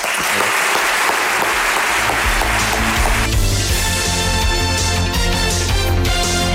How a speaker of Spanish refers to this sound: Y simplemente eso, quería dar un, aplauso de vuestra parte a...